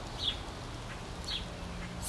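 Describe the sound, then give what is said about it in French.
Two short, high bird chirps sound about a second apart over a steady soft hiss of rain and a low background hum, all fairly quiet with no voices. “Au son de la pluie et des oiseaux”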